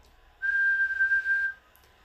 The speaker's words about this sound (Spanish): Les voy a pedir que se relaje, que cierren sus ojos y que silben alguna nota larga, como por ejemplo así.